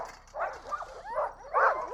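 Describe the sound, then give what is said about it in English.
A chorus of six excited distance racing sled dogs barking, yipping and whining over one another in rapid, overlapping bursts as they are readied for a dog mushing run, continuous with no pauses. “So this is dog mushing its best. Noisy, noisy, noisy. You couldn't load up. The dogs are super excited.”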